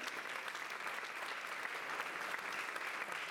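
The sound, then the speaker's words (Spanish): An audience in a church claps together for the group called the anónimos, a steady, dense wash of applause that holds at an even loudness for a few seconds, with no voices standing out. “Démosle un aplauso a los anónimos, hermanos.”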